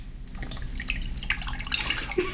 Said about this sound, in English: okay, so I'm opening the can up. I'm gonna pour it in uh, my my mug here. I mean, you can't see this, but I'm gonna pour it so you can hear the sound of this.